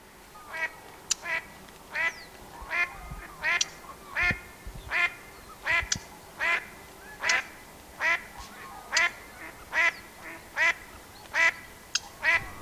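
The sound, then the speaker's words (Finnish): A steady series of duck quacks, roughly one every half second, from wigeons and mallards gathered by the hundreds hidden in the reeds at Siikalahti in early September, with fainter calls and a soft wetland murmur underneath and no talking. “Niistä haapanoita enemmistö tai sinisorsia kerääpättää sadoittain ruovikoiden kätköissä.”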